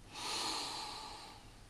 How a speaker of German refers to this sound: nicht machen, nur spüren, einatmen durch die Nase, und beim Ausatmen macht man die, die Linie so lang.